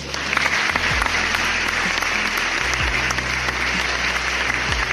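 An audience gives another round of applause for a doctor, a steady round from many hands, dense and continuous clapping that holds at a fairly loud level for the full few seconds.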